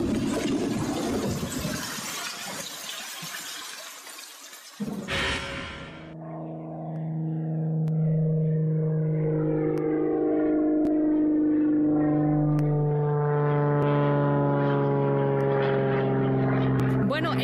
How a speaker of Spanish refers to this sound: escuchamos el sonido de las hélices de un avión porque nuestra historia sonora trata justamente sobre eh, la eh, pilota más maravillosa y famosa en la historia eh, Amelia Earhart